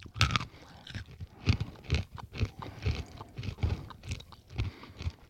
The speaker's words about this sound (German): Ich muss gerade mal eine Vergleichsmandel essen, normale.